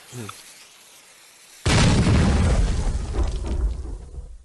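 After a brief quiet moment, a single loud TNT explosion bursts in suddenly and rolls on as a heavy, crackling rumble that slowly fades over the next few seconds.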